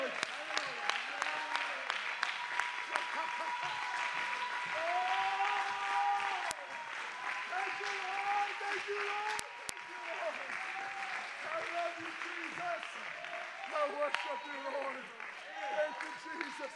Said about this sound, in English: Ah, is somebody thankful? Would you clap your hands right now to the Lord?